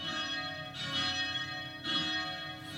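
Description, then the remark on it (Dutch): Church bells ring out with rich, sustained overlapping tones, two fresh strikes swelling about a second apart over a continuous resonant hum, steady, with no voices. “Dus eerst hoor je de klokken.”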